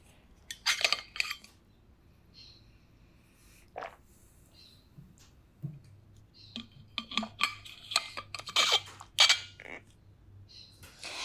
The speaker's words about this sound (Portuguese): Tá bom, deixa eu tomar um gole d'água então, enquanto eu penso.